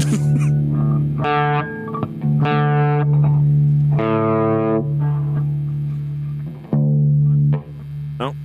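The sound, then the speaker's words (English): A loud, distorted instrumental rendition of the Star Trek theme, played as long sustained notes that step between pitches over a steady low drone, with no voices. “Okay, you may hear the full version of this Star Trek theme on an upcoming DV test of patience.”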